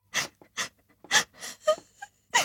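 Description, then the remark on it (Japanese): A voice cries in short, breathy sobbing bursts, about five in quick succession with gasping breaths between them, alone with no talking. “泣き声を聞くとハラハラ心配してしまう。”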